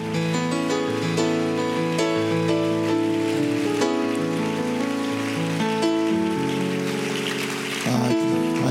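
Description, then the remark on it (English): An audience at the Ohio District Senior High Camp claps their hands unto the Lord, a dense, continuous patter of many hands over sustained musical tones that play throughout, with no one speaking. “Can you clap your hands unto the Lord, everybody?”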